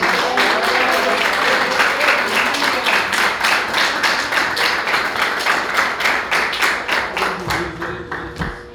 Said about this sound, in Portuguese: E as palmas que adorem ao Senhor Jesus.